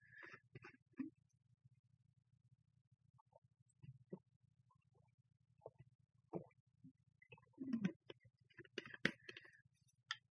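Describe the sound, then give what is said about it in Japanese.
Someone drinks water that was drawn about two days earlier, with several soft gulps and swallows spaced a second or two apart, small wet mouth clicks between them, and a steady low hum behind. “あと、水を飲みます。”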